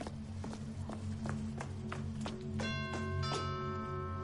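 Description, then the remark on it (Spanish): Footsteps climb the steps of a luxurious house at a steady, brisk pace, about a dozen firm thuds over a low droning hum, then bright ringing doorbell chime tones sound near the end. “sube los escalones de una lujosa casa y llama al timbre.”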